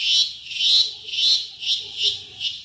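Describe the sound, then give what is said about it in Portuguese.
A loud, shrill cicada song of Orellana strepens, a large species of the coastal Atlantic Forest region: a high buzzing drone that swells and fades in a steady pulsing rhythm, about five surges, with no voices. “Um exemplo é Orelana strepens, uma espécie muito bonita, grande, que habita aí meio que a região litorânea da Mata Atlântica, uh, e a gente conseguiu ter ótimos registros do som dela.”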